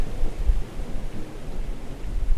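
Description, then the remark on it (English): A thunderstorm rumbles with deep, continuous low thunder beneath a steady wash of heavy, torrential rain, loud, with no voices present. “In Missouri, it actually rained all the time huge torrential downpours with thunder that would rattle our old kitchen windows.”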